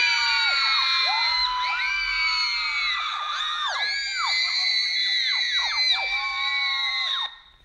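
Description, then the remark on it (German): A large crowd of fans screams hysterically, many high-pitched voices shrieking and wailing over one another in a dense, continuous wall of sound that stays loud throughout before cutting off abruptly. “Wer rastet hier eigentlich aus und warum?”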